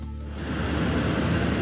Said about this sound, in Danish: Den her hvide støj, du hører, det er lyden af formand for repræsentanternes hus i USA, Nancy Pelosi's officielle fly, som ruller ind på landingsplanen i Taiwans største by, Taipei, i går sidst på eftermiddagen øh, dansk tid.